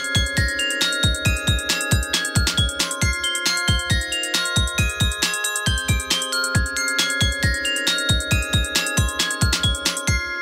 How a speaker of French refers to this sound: Du Star Wars aussi, au Glockenspiel.